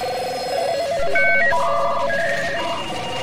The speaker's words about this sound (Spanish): Los teléfonos no paraban de sonar.